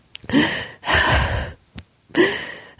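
A person crying, with three long, breathy, shaky sobbing exhalations separated by short sharp gasping inhales, no words spoken.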